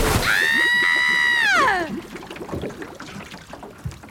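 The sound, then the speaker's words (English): A loud, drawn-out scream that drops in pitch, followed by irregular sloshing and splashing of water against a small boat. “Let me in the boat quickly.”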